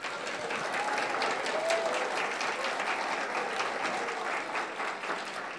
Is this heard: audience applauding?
yes